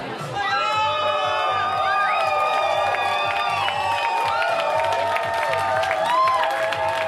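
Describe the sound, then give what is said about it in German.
A large crowd of Reform Party members cheers and shouts at an election party in the Radisson hotel in central Tallinn, Estonia, after 11 pm local time. A dense, continuous roar of overlapping voices stays loud throughout, with raised calls and chants for party leader and Prime Minister Kaja Kallas rising above the din. “Im noblen Hotel Radisson im Zentrum Tallinns hatten Mitglieder der regierenden liberalen Reformpartei ungeduldig auf ihre Smartphones geblickt, als schließlich Jubel aufbrandete.”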